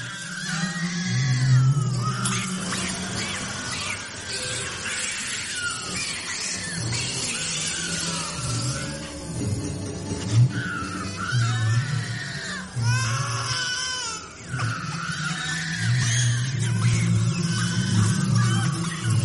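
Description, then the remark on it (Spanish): Several newborn babies wail at once in loud, overlapping cries, with shrill rising-and-falling pitch and brief breathy gaps, continuing steadily throughout; the original, unaltered recording. “pero es el sonido de unos bebés recién nacidos llorando, invertido y doblada la velocidad.”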